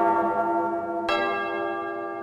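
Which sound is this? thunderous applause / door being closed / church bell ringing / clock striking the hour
church bell ringing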